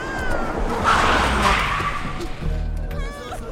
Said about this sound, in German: Da hielt ein Auto an.